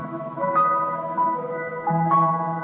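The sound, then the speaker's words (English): Loud music plays on its own from a woman's website that was clicked on, a bright, tinkly melody of sustained tones over a steady lower accompaniment, with no one talking. “No, I clicked on her website and um. Oh shit. We got some loud ass music.”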